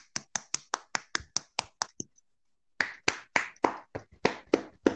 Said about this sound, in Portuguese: Bater palmas palmas para os médicos e enfermeiros, né? Que tanto batalham, né? Nessa batalha contra o coronavírus. Palmas.